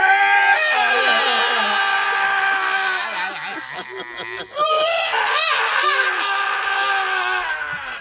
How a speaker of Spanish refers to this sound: Ese era Obama llorando, señor.